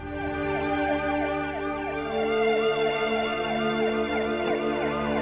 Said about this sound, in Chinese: 检察官话音落下，不远处响起了警车的鸣笛声。